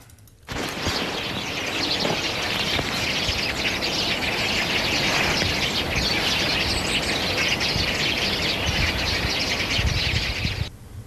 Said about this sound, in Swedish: Ja, framförallt pilfinkar, men jag tyckte att det fanns gråsparv med också. Och jag tippar att de här sitter inne i en tät häck, hagtornshäck, och, och uh, samspråkar livligt på det här sättet som de brukar göra